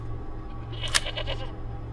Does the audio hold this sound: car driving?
no